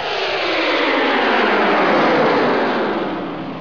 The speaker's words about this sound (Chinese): 嗖，载着穿梭机的火箭冲上天空，乐迪已经赶不上了